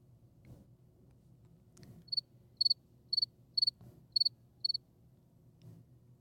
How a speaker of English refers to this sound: That's what I got. Two words. Cricket noises.